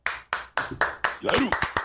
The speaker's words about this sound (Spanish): Eh, señora y señora, aplaudiendo porque uno tiene que aplaudir duro, mira.